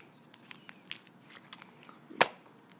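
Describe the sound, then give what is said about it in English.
Crackly squishing of clay slime being pressed and handled, a scattered series of soft sticky clicks and pops with one louder crunchy squelch near the end, no talking. “my clay slime. If you can hear that, so satisfying.”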